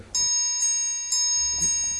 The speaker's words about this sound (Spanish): Perro, eso fue un timbre. fue un timbre, un triángulo.